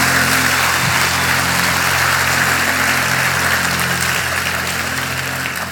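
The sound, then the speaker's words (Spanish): An audience applauds the Lord in a loud, sustained wash of dense clapping that holds steady for several seconds, with a low steady hum running underneath and no voices heard. “Para dar el mejor aplauso que le hayas dado al Señor.”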